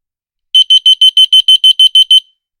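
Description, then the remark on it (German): A loud, shrill electronic alarm from a receiver, set off by pressing its third button, beeps rapidly about ten times in a steady rhythm, with no voices, then falls silent. “Da bringen wir jetzt vielleicht auch nochmal eben äh, so einen Empfänger unter. Und jetzt drücke ich die dritte Taste.”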